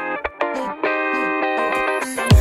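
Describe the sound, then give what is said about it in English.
Opening bars of a pop song: bright, processed synth chords ring out steadily after a couple of short stabs, ending with a deep low thump, loud. “listening to this beautiful song, … by …”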